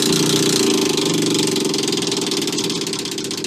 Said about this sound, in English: I know you want me to spin the wheel